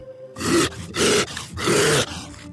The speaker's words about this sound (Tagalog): Biglang ang lumabas ang gumagapang na sindak. Nakakabingi ang atungal nito.